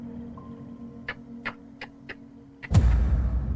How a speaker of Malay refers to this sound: Tu bunyi apa dah? Ah, ah itu memang orang kata bunyi guli lah. Ah bunyi guli ni orang kata ah, anak jin bang eh.